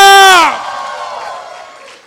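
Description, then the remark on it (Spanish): An audience lets out a loud victory shout, one strong voice ringing out first, then a roar of cheering and whoops that fades over about two seconds. “Vamos a dar un grito de victoria.”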